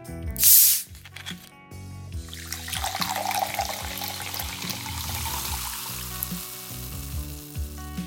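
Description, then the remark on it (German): A sharp hiss as a sealed screw-cap bottle of mineral water is opened, followed by the mineral water poured into a glass and a steady, crackling fizz of bubbles that continues to the end, with soft music underneath. “Dafür recordeten wir das Öffnen einer verschlossenen Flasche sowie das Einschenken und das anschließende Prickeln des Mineralwassers.”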